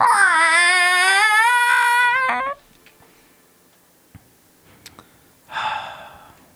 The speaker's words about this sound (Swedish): Vad var det? Mm. Det lät som ett barnskrik.